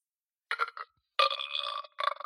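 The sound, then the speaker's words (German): A burp sound effect played on command from a box: a short croaky belch, then a longer drawn-out one and a brief final burst, loud and buzzy with no talking. “Wir können jetzt auf Kommando rübsen.”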